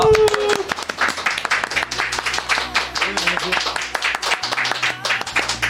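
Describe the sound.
Dense, sustained standing ovation from a group, many overlapping claps forming a steady crackling roar for several seconds, with a few voices mixed in underneath.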